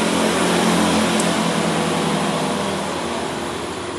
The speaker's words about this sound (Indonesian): gue ngerekod ini di luar jadi paling kedengaran suara-suara motor gitu